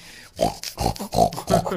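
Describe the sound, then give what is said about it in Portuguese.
A voice imitates the dog Wolf snoring like a pug at night, with four or five rough, nasal snorts in a steady rhythm, low and grunting, each burst fairly loud, with no talking around them. “é o Wolf roncando que nem um, um pug.”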